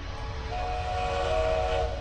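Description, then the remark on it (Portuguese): A train rolls steadily along the rails with a continuous low rumble. Partway through, a sustained high-pitched tonal whine or whistle rises over the clatter and holds to the end. “Na última aventura, dentro de um desses trens, de uma dessas locomotivas,”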